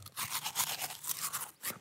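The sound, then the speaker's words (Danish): A small transparent plastic toothbrush, 10 cm long, scrubbing inside a mouth: rapid, wet, scratchy strokes repeating in an uneven back-and-forth rhythm, fairly loud with no talking. “Men det er faktisk en tandbørste.”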